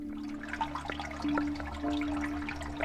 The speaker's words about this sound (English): she relayed a story about Medicine Springs, a special pool of fresh spring water in the backyard